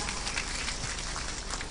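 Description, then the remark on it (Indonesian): An audience at a religious gathering (pengajian) claps steadily for the Banser, a dense crackle of many hands with no voices over it, holding an even, fairly quiet level from start to finish. “tepuk tangan dulu dong buat Banser kita”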